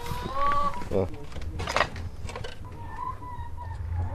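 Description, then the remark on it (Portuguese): Eight hens in a village after a fire cluck and croon in short, drawn-out calls while pecking at grain among ash, with a few sharper bursts in between, all over a steady rustling outdoor background. “as oito galinhas de Manuel Jorge, que debicam grãos de cinza. Eles lá ainda não contentes, andam a cantar”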